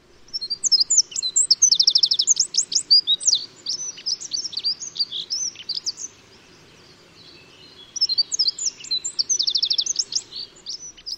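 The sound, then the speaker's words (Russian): A male leaf warbler sings a loud, rapid territorial song of high trilling phrases, two long bursts separated by a brief pause, clear over a faint low background hum. “Громкой песней они оповещают конкурентов о том, что участок занят, и одновременно привлекают на него самку”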